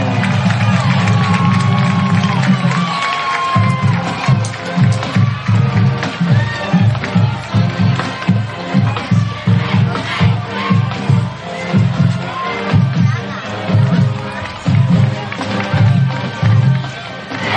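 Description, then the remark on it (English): A huge record stadium crowd at a Hanceville football game roars and cheers without letup as the Bulldogs come out before kickoff. The dense wash of voices is driven by a steady, rhythmic low thumping that pulses underneath throughout. “As we are crammed up here at the top of the box here at Hanceville, it is a record crowd.”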